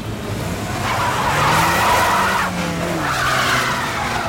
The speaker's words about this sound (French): Mais brusquement, la voiture des gangsters fait marche arrière. Puis, elle repart à toute allure.